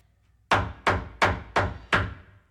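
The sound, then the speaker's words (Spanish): Five firm knocks on the door of a house at night in the village of Los Matochos, Cuilapa, Santa Rosa, in southeastern Guatemala, in a steady, evenly spaced rhythm, each a sharp thud with a short ring-out, fairly loud with no voices. “Esa misma noche, en una casa a casi 6.000 kilómetros de distancia, en la aldea Los Matochos, en Cuilapa, Santa Rosa, al sureste de Guatemala, tocaban la puerta.”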